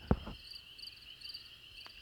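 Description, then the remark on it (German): Crickets chirp steadily as a sound effect filling an awkward silence, a continuous high-pitched trill with a faint pulsing rhythm, preceded by a brief low thump at the very start. No one is speaking. “Ich habe schon gesagt, das Grillenzirpen ist ja in unseren privaten Unterhaltungen auch ein wesentlicher Bestandteil gewesen.”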